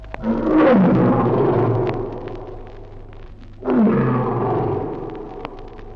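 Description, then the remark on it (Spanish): Two loud saber-toothed tiger roars, each a deep, rasping growl that swells and then slides downward, separated by a brief pause, with no talking. “Había entonces un animal terrible, el gran tigre de los dientes de sable.”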